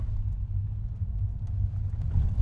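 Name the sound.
car engine rumbling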